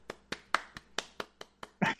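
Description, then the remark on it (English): One person claps their hands for themselves in welcome, in a quick, steady rhythm, about eight crisp claps evenly spaced, ending with a louder burst as a voice briefly cuts in. “Can you guys hear I'm clapping for myself?”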